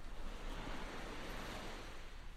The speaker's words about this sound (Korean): 진구의 말을 못 들은 듯 아니면 파도 소리로 들린 듯 언덕 아래 바다를 내려다봤다